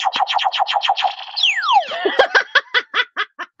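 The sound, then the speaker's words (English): A goofy game show buzzer effect: a rapid run of chirping pulses, a swooping downward whistle in the middle, then slower bouncing blips that trail off. Loud, with no talking. “So let's explain, let's just demonstrate our buzzers.”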